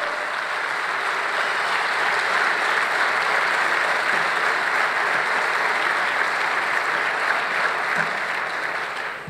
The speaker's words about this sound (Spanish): Dele un fuerte aplauso a Jesucristo.